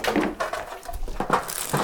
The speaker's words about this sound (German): So, Schublade zu.